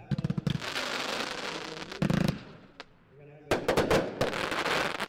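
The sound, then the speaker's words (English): Crackling fireworks with a delayed crackle effect in a loud finale: dense, rapid sizzling pops rush on for a couple of seconds, thin out briefly, then erupt again in another sustained burst of crackle. “And I like the way yeah, they did that nice. delayed crackle, which you thought was going to be a bomb, and then then then they did the finale after that, so it's kind of that was pretty good.”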